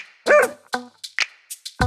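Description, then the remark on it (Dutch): A dog named Ragna barks, a quick irregular string of about six sharp, high-pitched yaps and barks, fairly loud, with no one talking. “mijn hond die noemt Ragna.”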